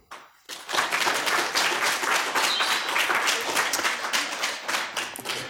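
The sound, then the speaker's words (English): An audience bursts into applause as a vote after a brief quiet moment, many hands clapping densely and steadily for several seconds, loud, with no talking over it. “Maybe by a round of applause.”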